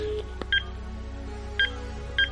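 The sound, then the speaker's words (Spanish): Three short touch-tone beeps from a phone keypad as a telephone number is dialed, spaced unevenly as digits are pressed, standing out clearly over a low, steady background hum with no talking. “Llamarle por teléfono. Vamos a marcar.”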